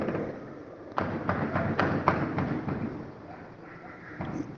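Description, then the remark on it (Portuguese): Machine gun fire from a shootout crackles in a quick, uneven burst of sharp shots lasting a couple of seconds, from the direction of Mercado Sul, followed by a pause and one more faint pop against a steady outdoor background. “Pensa nos tiroteios que tá tendo aqui. Troca de tiro, metralhadora.”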